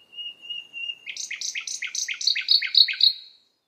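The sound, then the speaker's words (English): A bird sings: a thin, steady whistle opens, then a quick run of about eight bright, evenly spaced trilled notes that grow slightly louder before stopping abruptly, with no other sounds. “As the flowers open, the birds are singing, and I think our brains and hearts link those things together.”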